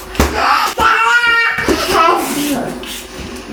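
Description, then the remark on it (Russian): A busy family home where four children live: several young children's high-pitched voices chatter and call out over one another, loud, with sharp clatters and splashy household noise filling the background. “Так звучит дом, в котором живут четыре ребенка и пятый на подходе.”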